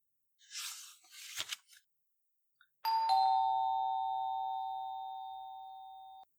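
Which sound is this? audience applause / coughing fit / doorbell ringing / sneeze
doorbell ringing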